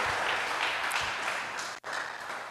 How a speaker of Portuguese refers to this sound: Então, queria que você ficasse sobre seus pés. Queria que você aplaudisse ao Senhor, né?